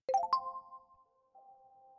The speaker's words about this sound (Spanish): Yo no tardo en darme cuenta de que al juntarlas son como un puzzle que compone una imagen más grande, completa, y en ese momento recibo un mensaje en mi teléfono.